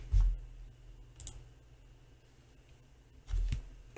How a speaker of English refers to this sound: I get to roll two d eight to determine how many hit dice I impact. Mm-hmm. Let's do it.